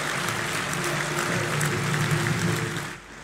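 A large crowd applauds André Ventura's closing speech at the 5th National Convention of the Chega party, a dense wash of clapping with a low murmur of voices underneath, holding at the same level before dropping off abruptly near the end.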